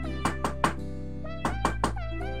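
Two sets of three quick, evenly spaced knocks on the door of the chicks' house, made by a fox dressed as a doctor in a children's story, separated by a short pause, sounding over a steady musical background with no talking.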